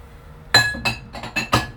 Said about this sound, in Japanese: ちょっと片付けようちょっと結構ね食器出しっぱなしにしてるからちょっとしまおうしまった方がね